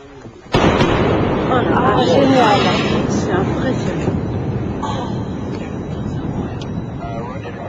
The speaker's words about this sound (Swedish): En så kallad Sonic boom. En ljudbang. En tryckvåg skapas kring det föremål som färdas fortare än ljudet och det uppfattas på marken som en ljudbang.